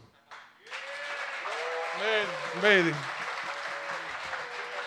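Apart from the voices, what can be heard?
audience applause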